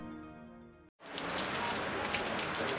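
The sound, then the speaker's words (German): A short tonal musical note cuts off into a brief silence, then steady, dense rain pours down in Maputo, Mozambique, during the rainy season, a loud hiss of drops pattering continuously on surfaces with no voices. “Regenzeit in Maputo.”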